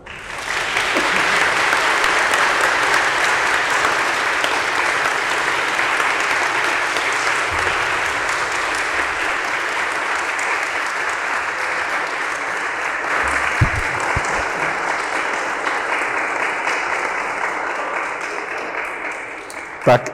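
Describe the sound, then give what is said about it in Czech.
Sustained audience applause for Dr. Telička at the end of a discussion, a dense steady wash of many hands clapping that holds for about twenty seconds before tapering slightly at the end. “Tahle ten, tahle ten potlesk budete muset ještě jednou zopakovat pro pana doktora Teličku.”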